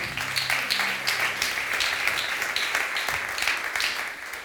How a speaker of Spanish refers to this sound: Y amén. Denle un fuerte aplauso a su Señor.